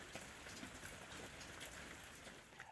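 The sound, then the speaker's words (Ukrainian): Steady rain falls outdoors and patters on roofs, a dense, even hiss of countless small drops with occasional slightly louder taps, continuous and fairly soft throughout. “А на дворі падає дощ і мило постукає по дахах.”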